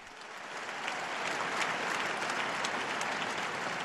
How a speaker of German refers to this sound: Einen Applaus für die neue Selige.